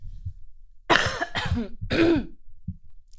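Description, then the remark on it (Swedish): Three harsh coughs in quick succession, mixed with rough throat clearing, followed by a brief low throaty sound before it falls quiet. “Så, ursäkta, det kommer att bli lite hostningar här på under tiden.”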